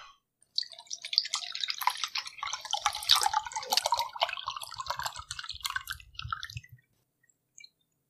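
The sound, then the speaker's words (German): An odourless white liquid, tasting sweet and of coconut, is poured into a glass for about six seconds, a steady burbling, glugging splash with bright trickling detail, then it stops, leaving quiet apart from one faint tap. No one speaks. “Und mit dem richtigen Glas passt doch alles rein.”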